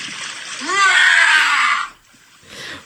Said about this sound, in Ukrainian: Пірнає в крижану воду. Так що... Зараз він там вилізе і кричатим.